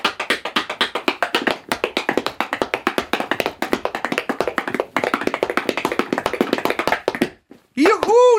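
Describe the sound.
Rapid tap dancing steps clatter on a hollow folding board in a dense, lively rhythm for several seconds, then stop, followed by a brief voiced exclamation.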